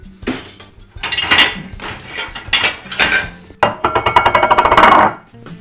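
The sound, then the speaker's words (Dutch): Ceramic plates clink and clatter against each other as one is taken from a stack while cooking, several bright knocks, ending in a busy rattle that stops abruptly. “Pak alvast een bordje.”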